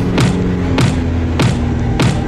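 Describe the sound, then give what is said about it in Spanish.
Four heavy, evenly spaced thumps, like a flying creature pounding against a car window, strike over a steady low rumble of a car driving at high speed. “Era la criatura, golpeando fuera de mi ventana, volando al lado de mi auto.”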